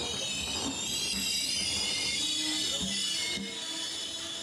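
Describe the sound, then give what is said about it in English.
A train's steady rumbling ride on rails along the Mediterranean coast to Marseille, with a continuous metallic squeal and hiss riding over it, fairly loud, with no voices. “The next morning, they packed up and took the short train journey along the Mediterranean coast to Marseille.”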